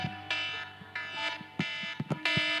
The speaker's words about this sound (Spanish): Si sí, es cierto, no quiero escuchar ese despertador. Muchas veces nos asustamos cuando escuchamos esto.